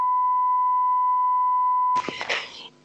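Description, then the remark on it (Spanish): A steady, loud censor bleep holds one pitch for about two seconds, then cuts off abruptly into a short burst of voice and noise. “y luego tengo otra persona a psicoanalizar que se llama Pitido.”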